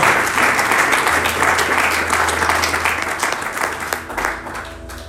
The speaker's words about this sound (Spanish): Alguien puede aplaudirle al Señor en esta, tarde. Aleluya, Dios al Señor.